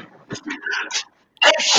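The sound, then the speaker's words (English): A single loud sneeze bursts out near the end, preceded by a brief breathy build-up and soft voice-like sounds. “Um, I feel like bless you, man.”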